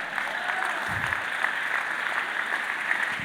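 An audience claps steadily, a dense, continuous patter of many hands at a fairly even loudness, with no clear rhythm and no voices standing out.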